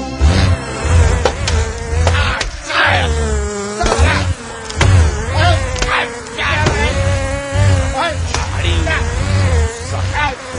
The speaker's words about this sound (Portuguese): Calma, amigo, estamos sendo invadidos por abelhas.